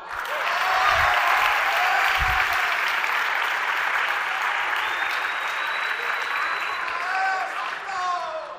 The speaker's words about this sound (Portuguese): Agora aplauda.